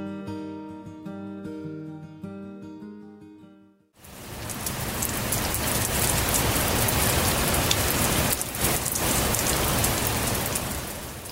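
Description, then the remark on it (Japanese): A few seconds of soft melodic music give way to a steady, hissing patter of light rain on a chilly morning, 13 November 2009, that continues evenly to the end, fairly full, with no voices. “出会いは2009年11月13日小雨が降る肌寒い朝だった”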